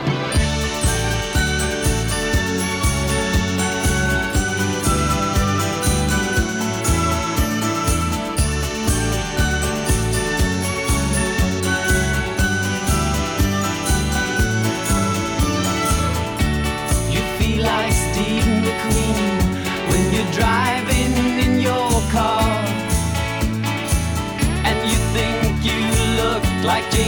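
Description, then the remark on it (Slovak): An upbeat pop song plays steadily with a driving beat, layered instruments and sung vocals, including female backing voices joining in, loud and continuous throughout. “Takto znie ten titul.”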